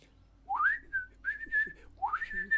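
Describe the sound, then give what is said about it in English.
A person whistles a short birdlike tune: two phrases that each sweep upward and then hold a bright, steady high note, with a brief pause between them and no talking. “Luckily, most days the birds fill my branches and sing. My, my favourite song is um.”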